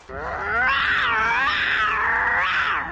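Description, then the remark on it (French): A male jaguar lets out a long, loud, meow-like call, its drawn-out voice rising and falling in pitch for nearly three seconds, with no talking over it. “Oh, tu miaules Recommence, c'est mignon.”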